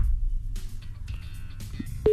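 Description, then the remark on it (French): A telephone call to a listener being offered a prize rings out unanswered: a steady, mid-pitched ringing tone starts abruptly near the end, preceded by faint electronic tones over a low, constant hum with no talking. “Mais si elle décroche pas, on peut appeler quelqu'un d'autre.”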